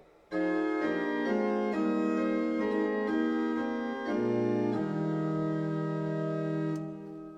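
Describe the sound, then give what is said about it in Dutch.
A slow hymn melody sung in harmony, steady chords moving note by note and settling on a long held final chord. No talking. “Mooie, vloeiende melodie, ook de harmonieën ondersteunen dit prachtig.”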